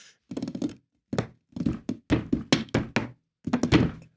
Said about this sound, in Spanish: Eso, la misma mesa puede crear sorpresa, puede crear un sonido. No sé lo que hay aquí, pero...